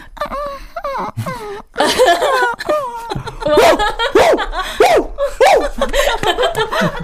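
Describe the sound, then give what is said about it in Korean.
A person imitates an injured puppy, as if stepped on by someone, producing a series of high, wavering whimpers and whining moans that rise and fall repeatedly, fairly loud, with no other sounds around. “저는 끙끙 앓는 강아지.”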